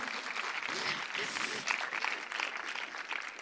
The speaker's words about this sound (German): Vielleicht können wir ihm auch mal einen Applaus geben.